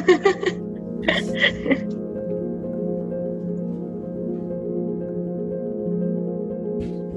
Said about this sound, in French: C'est juste que mon chien veut, pleure parce qu'il veut aller faire pipi.